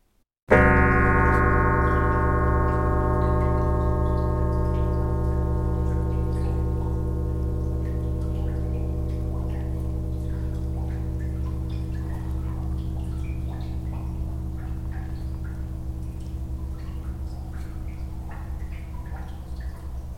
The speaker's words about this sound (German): So klingt ein Diamantsägeblatt mit einem Durchmesser von 70 Zentimeter. Ende März wurde damit die letzte Decke des ehemaligen Anbaus zerschnitten, die für den Neubau abgetragen werden muss.